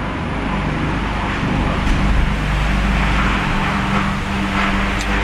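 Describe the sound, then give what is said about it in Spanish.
Steady road traffic noise with a deep, continuous rumble of passing cars, fairly loud, holding at an even level throughout with no one speaking. “Perdón, entre la entre tu entre tu carretera y un y un helicóptero que estaba aquí en en la en la ventana fue fue un poquito complicado,”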